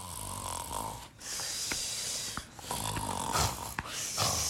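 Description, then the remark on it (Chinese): Loud, rhythmic snoring with breathy, rasping cycles repeating about every second and a half, each with a brief pause between breaths, as someone lying in bed looking at a phone falls asleep. No voices are heard. “他就咕咕咕咕的， 睡着了。”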